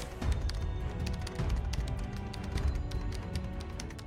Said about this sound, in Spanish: Coloca los audífonos en sus orejas, comienza a reproducir música y sus dedos empiezan a volar sobre el teclado de la computadora.